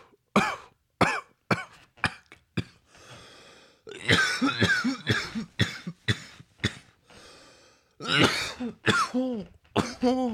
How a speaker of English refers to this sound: that one went down wrong. Woo.